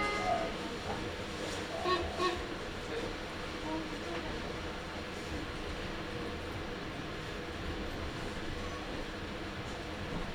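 A Meitetsu (Nagoya Railroad) Toyokawa Line limited express train bound for Gifu rolls steadily out of Toyokawa-inari station toward Kō, a continuous rumble and rush of wheels, with a few faint tones and murmurs in the first couple of seconds.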